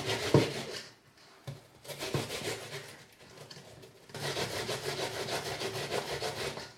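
An onion being grated on a grater, rubbed around its sides so the woody ends are not grated: rough, rhythmic rasping strokes scrape back and forth, broken by a couple of short pauses before a steady run of grating.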